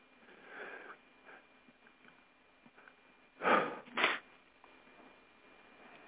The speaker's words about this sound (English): stifling a sneeze.